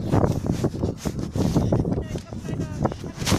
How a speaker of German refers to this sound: Oh Mann, der Wind knallt komplett rein. Äh, das gibt heftige Störgeräusche, werde ich euch jetzt schon sagen.